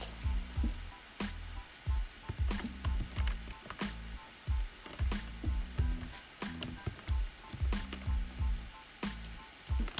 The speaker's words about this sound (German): Und es regnet und es ist Nacht.